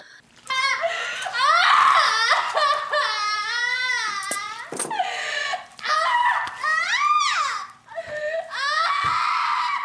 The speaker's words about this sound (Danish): så er det altså kejsersnit uden bedøvelse. Ja. Øhm, så hun gør simpelthen det, hun startede med at ville gøre, og klipper maven op. Mm. Og, øh, og det ser man og, og, og så skriger, ja. og øh, det er selvfølgelig ikke rart, det kan man da godt høre.